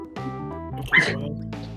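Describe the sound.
A dog gives a short, sharp bark, rising out of a low hum of background voices and then fading into a steady murmur.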